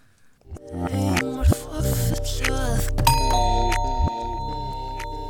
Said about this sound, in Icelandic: Við heyrum strax annar lag sem spilaðir aftur og bakk. Hvað lag er þetta?